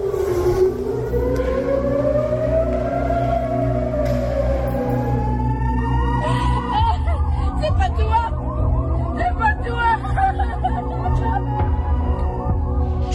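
An air raid siren in Tel Aviv, Israel, wails with a slow rise and fall, soon joined by faster cycling sirens overlapping it. The loud, continuous sound sits over a steady low rumble of street noise as people run to shelter.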